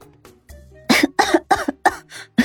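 A burst of harsh, rapid coughing from someone who has choked, about five or six loud hacking coughs in quick succession after a few faint lead-in sounds; no speech.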